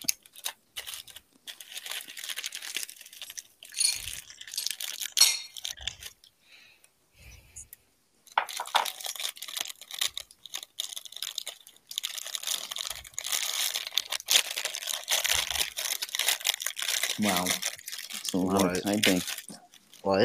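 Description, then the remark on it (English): Loud crinkling and rustling of a plastic bag being opened, with bursts of crackle that pause briefly and then resume steadily; a voice murmurs faintly near the end. “I was opening up a a bag.”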